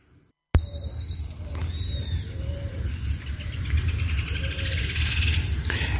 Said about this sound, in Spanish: Y con el sonido de los pájaros vamos a saludar a nuestro amigo Jason Wilson.